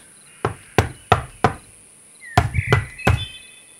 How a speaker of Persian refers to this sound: ناگهان درب به صدا درآمد